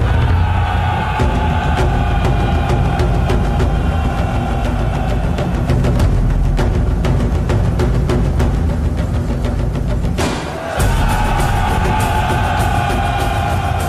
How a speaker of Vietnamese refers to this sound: Bỗng có tiếng hò reo gian trời chuyển nước